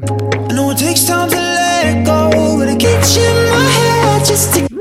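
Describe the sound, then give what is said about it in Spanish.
A loud, full-band pop song plays continuously, with a prominent guitar riding over a steady, driving bass line and bright cymbals. “No, es que la guitarra es muy característica acá.”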